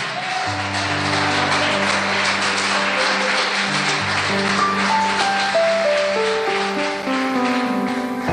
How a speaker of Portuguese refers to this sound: Vamos aplaudir o nome do Senhor bem forte, irmão.